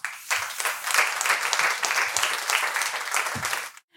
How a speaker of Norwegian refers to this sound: Og eh, ønsker velkommen eh, nye deltakere på scenen. Ordførerkandidat for eh, Høyre i Bergen, Marit Wanke. Og fylkesordfører i Trøndelag, Tore O. Sandvik. Gi dem en god applaus.